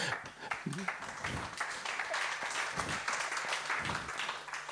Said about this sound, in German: Also so einen Applaus nennt man bei uns Rohrkrepierer. Ja, also wenn, dann macht's richtig.